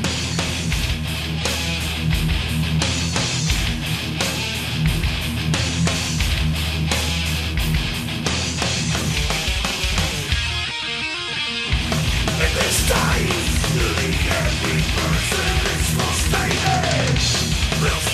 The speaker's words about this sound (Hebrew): ועכשיו אנחנו עוברים לתחום הטרש מטאל, להקה שמעולם לא ניגענו, פחות מוכרת.